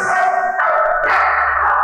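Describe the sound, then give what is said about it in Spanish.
A thousand puppies in a room yap and yip happily all at once, their high, excited barks overlapping into a loud, continuous chorus, with no pauses and no talking. “Él continuaba feliz y siguió ladrando de felicidad, al igual que todos los demás.”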